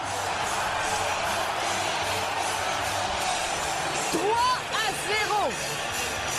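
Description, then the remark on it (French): A stadium crowd cheers a soccer goal scored by Patrice Bernier with a steady, dense roar, and a few piercing rising-and-falling whistles and whoops cut through near the end. “Oh oui, quel plaisir d'entendre la foule y aller de...”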